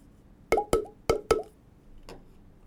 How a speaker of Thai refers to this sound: หลังจากนั้นผมเริ่มสนุกนะครับผมก็เอาท่อ PVC มานะครับ แล้วก็ตัดความยาวให้มันไม่เท่ากันครับ ลองฟังดูนะครับว่ามันเป็นยังไงนะ อันนี้ท่อนที่ 1 ครับ ท่อนที่ 2